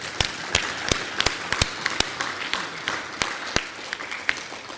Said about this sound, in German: Äh, einen großen Applaus bitte einmal für die IMI und alle Freiwilligen und Aktiven, ähm, die das hier heute und äh, ja auch in den kommenden Tagen möglich gemacht haben. Ich gebe mal den Applaus selber.